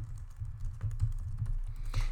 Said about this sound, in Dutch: We kunnen ook gewoon typen eh, met elkaar. Ook gewoon typen met elkaar. Komt dat wel aan?